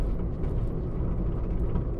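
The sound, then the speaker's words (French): Steady low rumble of road noise from inside a moving car on a long straight road through pine forest at sunrise under a cloudless sky, a constant droning hum with no speech, filling the whole moment at an even, moderate level. “Et malheureusement, de ne pas être obligé de conduire et de juste s'arrêter là et de regarder, de contempler.”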